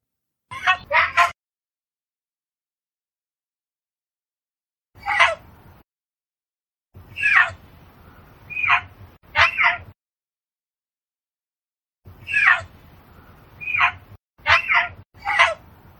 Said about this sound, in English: growling, snarling mountain lion sound